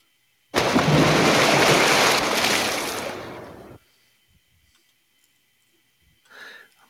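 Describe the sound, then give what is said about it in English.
A loud, abrupt splash like someone diving into water, a broad rushing wash that lasts about three seconds before cutting off, then near silence and a short faint sound. “it's water diving into the water”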